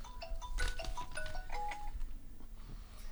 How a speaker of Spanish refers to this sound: Todo, perdón, el teléfono no lo apagué, mal hecho, no me di cuenta.